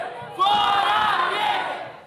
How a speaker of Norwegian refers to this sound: Ut med temer, roper deltakerne i en demonstrasjon her i Rio de Janeiro.